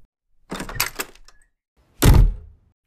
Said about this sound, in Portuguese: Abre a porta e fecha a porta.